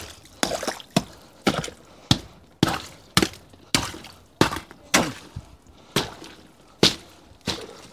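A hammer chips at ice frozen along the sides of a cooler, about a dozen sharp, bright impacts in an uneven rhythm, each with a crisp crackling ring of breaking ice. No one speaks.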